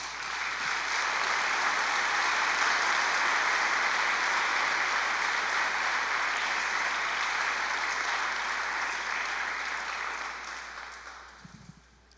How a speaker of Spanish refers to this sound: Le damos un aplauso al Señor por eso.